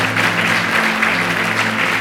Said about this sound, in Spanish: Dele fuerte ese aplauso al Señor.